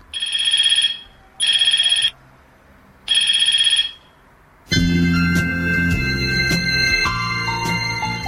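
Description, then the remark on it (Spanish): A mobile phone ringtone sounds three times in short, bright electronic bursts with brief pauses between, loud, before music comes in and fills the rest. “Un inventor de Los Ángeles, Estados Unidos, inventa el teléfono portátil.”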